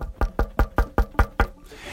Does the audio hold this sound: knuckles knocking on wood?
yes